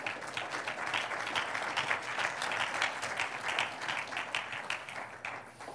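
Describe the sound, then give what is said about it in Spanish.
A crowd applauds steadily for several seconds, a dense wash of many hands clapping, fading slightly at the very end. “Porque Jesús es Dios manifestado en un aplauso al que vive.”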